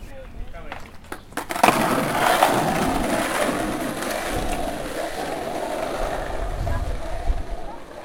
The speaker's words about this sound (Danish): Men i stedet for er der 30 børn på rullende bræt, som lærer skate